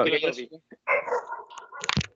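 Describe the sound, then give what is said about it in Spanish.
A German shepherd puppy named Eren Yeager whimpers and barks: a string of high, whiny cries and short yips in quick bursts, with a sharper bark near the end. “Ah, el Eren, po, pastorcito alemán.”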